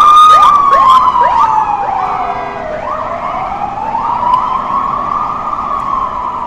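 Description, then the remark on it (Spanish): A loud siren from a small yellow ambulance van wails continuously, its pitch sweeping up and down and dipping as it passes by, over a steady rumble of city street traffic on Gran Vía in Madrid. No one speaks. “Es un furgoncito, un camioncito amarillo. Es una ambulancia.”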